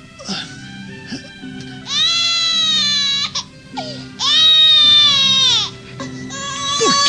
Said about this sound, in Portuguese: Essa infeliz criança chora tanto. Eu não aguento mais ouvir esse pobre infeliz.